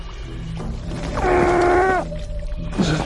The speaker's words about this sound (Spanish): Esto no tiene buena pinta. Estamos arrastrándonos sobre el fondo. La lancha irá arrastrándose hasta la orilla.